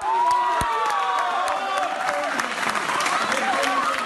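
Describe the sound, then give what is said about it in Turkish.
A crowd at Çağlayan Courthouse applauds and cheers as 51 Boğaziçi University students arrive, with dense, steady clapping and raised voices shouting and whooping over it, loud and unbroken throughout. “30'u hakkında tutuklama, 12'si hakkında konutu terk etmeme, 9'u hakkında yurt dışına çıkma yasağı talebiyle nöbetçi sulh ceza hakimliğine sevk edilen 51 Boğaziçi Üniversitesi öğrencisi Çağlayan Adliyesi'nde alkışlarla karşılandı.”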